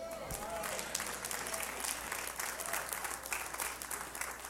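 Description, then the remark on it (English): An audience claps their hands in a steady, dense patter of applause that holds at an even level for several seconds, with no voices rising above it. “So, everything for those of you clapping your hands right there in acknowledgement, I want to talk to you.”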